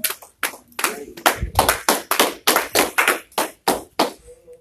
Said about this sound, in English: Y'all give the Lord some praise this morning. Like loud hand clap.